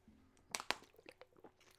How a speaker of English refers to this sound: Sorry, little sip of Perrier here.